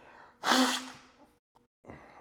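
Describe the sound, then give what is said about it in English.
Someone blows their nose into a shirt: one loud, forceful, hissing blow lasting about half a second, then a faint click and a shorter, softer blow. No one speaks. “Ugh, I had to blow my nose on my shirt.”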